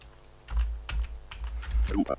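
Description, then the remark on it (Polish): Several crisp keyboard key presses click in quick, uneven succession as the Windows+Z keyboard shortcut is pressed, with a short burst of electronic voice just starting at the very end. “Może być tak, że właśnie będziemy musieli użyć klawi skrótu klawiaturowego Windows Z.”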